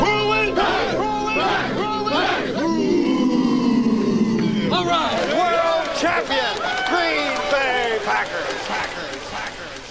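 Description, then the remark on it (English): The Packers football team's final locker room breakdown chant from a highlight tape: a crowd of men shouting and chanting together, loud overlapping voices and whoops carrying on without pause. “the call that always lingers in my mind the ending after the Packers' final breakdown in the locker room of that uh, legendary highlight tape”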